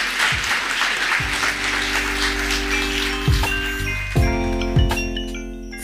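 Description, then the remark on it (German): Steady live audience applause for the speakers at the close of the show, a dense wash of clapping that carries through the whole stretch, while sustained ringing tones and a few struck, chime-like notes come in underneath partway through. “Es ist auch mal ganz schön, Applaus zu bekommen.”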